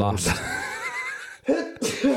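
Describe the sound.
A sudden, sharp sneeze bursts out, trailing into a drawn-out voiced tone, then two more short, throaty bursts follow in quick succession, like the tail of a sneezing fit.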